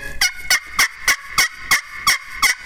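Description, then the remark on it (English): A basic hen turkey yelp made on a turkey-hunting game call: about eight evenly spaced, raspy notes in a steady rhythm, loud, with no talking. “that basic hen yelp, you can go from Maine to California to Mexico and call up every turkey out there.”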